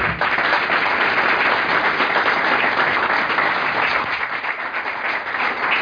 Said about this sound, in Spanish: Así que sin más, un aplauso para él.